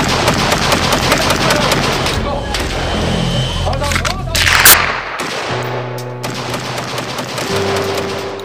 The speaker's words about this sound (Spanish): esos disparos son en la emisora.